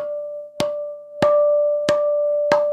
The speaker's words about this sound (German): die geschlagene Plastikflasche.